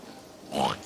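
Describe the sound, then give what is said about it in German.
A single short grunt from a domestic pig, fairly loud, rising briefly in pitch after a moment of quiet background hiss. “Ihr seid Hausschweine.”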